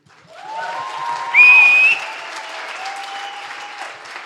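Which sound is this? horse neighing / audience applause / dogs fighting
audience applause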